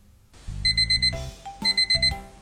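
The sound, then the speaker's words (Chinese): An alarm clock rings the next morning in a little pig's bedroom in a children's story, in two loud bursts, each a shrill, high-pitched electronic tone over a low rattling buzz, with a brief pause between them and no one talking. “第二天一早，闹钟响了，哼哼猪揉了揉惺忪的睡眼。”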